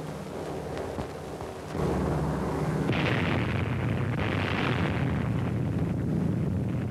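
The first atomic bomb test at Bikini Atoll, a bomb dropped on a target, explodes in a massive roar, then rumbles on as a sustained, heavy blast with deep low-end thunder that swells louder partway through and keeps churning without fading, no voices present.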